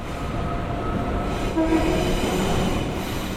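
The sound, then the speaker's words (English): A train rumbles steadily along the rails with a continuous low, rolling roar and a brief tonal whine rising near the middle, with no one talking. “Now, let's imagine that Alan and Claire are on the train going home after work, and Claire is trying to decide how to celebrate her birthday.”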